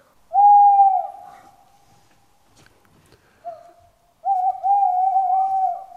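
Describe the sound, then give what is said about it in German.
A small owl (a Käuzchen) hoots in quiet woodland: a long, steady hoot, a brief softer note, then another drawn-out wavering hoot, clear with little else around. “Ähm, ein Eulengeräusch. Ja, so ein Käuzchen ne, im Wald, genau.”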